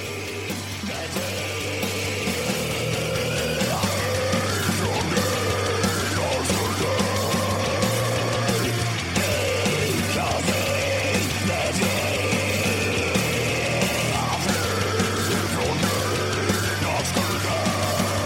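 A loud, dense rock song by a band from Sörmland, Sweden, fills the whole stretch, with heavy distorted guitars, a steady low bass drone and rough shouted vocals riding on top, playing continuously without pause.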